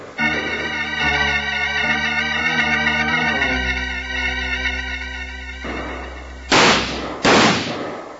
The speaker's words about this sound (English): Keep shooting, man. They can't hold out in there forever.